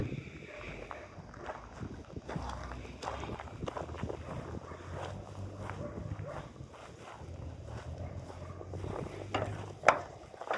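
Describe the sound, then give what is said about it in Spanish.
Footsteps of a person walking for a minute at a steady pace during a sound walk exercise, over a continuous outdoor background hum, with soft repeated impacts and one sharper knock near the end. “Voy a hacer el ejercicio. Caminen por un minuto.”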